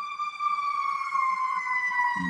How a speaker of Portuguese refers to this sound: É bombeiro, é bombeiro. Bom, então. Bombeiro, ambulância, não sei o que está acontecendo aqui.